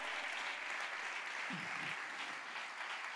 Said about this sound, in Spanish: Dele un aplauso fuerte al Señor en esta hora.